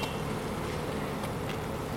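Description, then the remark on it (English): A dense, continuous hum of about six thousand honeybees buzzing together, steady, filling the whole scene with a busy droning texture and no voices. “I've got no hope of trying to show you where it is because six thousand bees here.”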